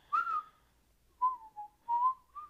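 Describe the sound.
A person whistles a bright, bouncy melody in short phrases, clear, with brief pauses between the notes and no talking.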